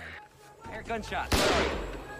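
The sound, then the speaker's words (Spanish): A single loud gunshot cracks out sharply and rings with a long echoing tail, right after a brief stretch of indistinct voices talking, as police officers close in on an armed suspect at the end of a manhunt. “Mientras escuchamos que se están acercando y los agentes dicen que lo tienen, escuché disparos.”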